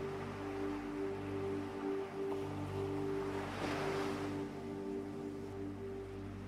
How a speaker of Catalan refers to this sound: Si t'atures una mica vora de l'aigua, potser arribarà alguna onada una mica més llarga i això farà que mulli els teus peus i la petjada on estàs ara es faci més fonda, més profunda.